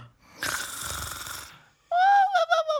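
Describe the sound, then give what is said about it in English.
Two loud snores follow one another: first a broad, raspy inhale, then after a brief pause a harsher, more nasal snore with a wavering whistle-like tone. No one speaks. “the two queens fell asleep with their heads in Alice's lap, snoring loudly”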